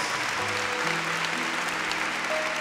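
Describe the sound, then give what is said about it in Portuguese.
A large crowd applauds steadily and loudly for Jesus Christ, a dense wash of clapping, with soft sustained keyboard notes held underneath. “Quem pode dar um aplauso ao Senhor Jesus Cristo, porque ele merece.”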